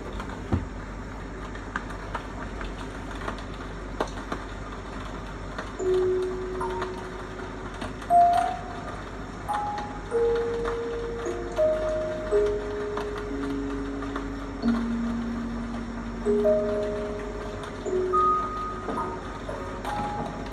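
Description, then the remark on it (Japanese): Soft bell chime tones, a trial bell sound for a song's intro, ring out one at a time at shifting pitches, sparse and irregular like raindrops striking glass, over a steady low hiss with no voices. “ちょっとこの、まあベル、ベルなんだけど、今、この音色、音色もまだ決まってなくて、このベルの音で、その、なんだろうね、まあ聞いてみて、今、試しにさっき、今一回入れた、入れたやつ。”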